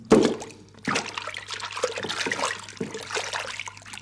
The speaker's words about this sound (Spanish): Tan absorto estaba que se resbaló y se cayó al río.